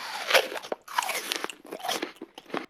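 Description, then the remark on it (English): Loud, crisp crunching as an apple is bitten and chewed, a run of sharp, bright crunches in quick succession with brief pauses between them, no voices. “Here, have an apple then.”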